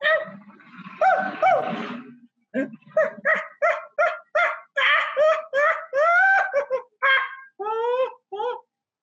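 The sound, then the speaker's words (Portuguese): A voice imitates a small monkey's chattering: a quick run of about fifteen sharp, squeaky calls, some rising in pitch, loud, with no other talk. “Viu? O macaquinho.”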